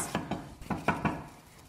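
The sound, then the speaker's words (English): A spoon scrapes and taps against small metal loaf pans as a thick, still-hot mixture is scooped in: about five quick knocks in an uneven rhythm, with no talking. “so I am transferring the mixture while it's still nice and hot into these little loaf pans.”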